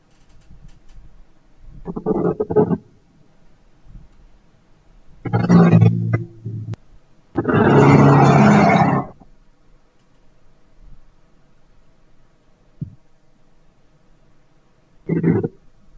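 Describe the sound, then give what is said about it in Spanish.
A hushed stadium crowd in Lisbon holds a minute of silence at a UEFA football match, near-silent with only a faint low background hum broken by three or four brief rumbling bursts of noise. No one speaks. “hay minuto de silencio, muchachos, minuto de silencio va a haber en el terreno de juego, así que eh, nos ponemos a presto para eh, escuchar este minuto de silencio que se está dando en el estadio de Lisboa.”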